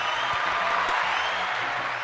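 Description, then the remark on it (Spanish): A crowd claps steadily for about two seconds for a group of three or four young men, a dense, even patter of many hands with no pauses and no voices standing out. “Tenemos variedades, eh, mucha muchas eh, diversidades de cultura, Aplaude los de chicos.”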